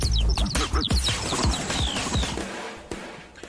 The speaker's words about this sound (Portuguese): Pode rodar a vinheta que já rodou do quadro Trend Topics e agora a gente já vai começar.